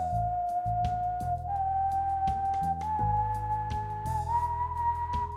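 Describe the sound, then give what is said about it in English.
A clear whistle climbs slowly upward in a drawn-out scale of seven notes, each note held before rising to the next, over a low, sustained droning accompaniment. “In all descriptions, he carries a sack full of bones on his back, and he whistles a slow, drawn out scale of seven notes.”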